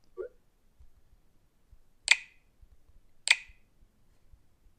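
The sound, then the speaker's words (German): Two sharp, bright taps on a touchscreen keyboard while entering a password of lowercase a's, about a second apart, after a short soft blip at the start. No voices, only faint low rumble between the clicks. “Doch, tippt er.”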